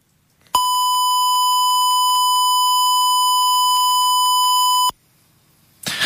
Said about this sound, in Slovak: V ďalšej nahrávke si pustíme, čo je to ten pravouhlý signál, aby sme si to trošku tak dostali do uši, ktorý má teda jeden z tých najmenších vôbec činiteľov výkyvu.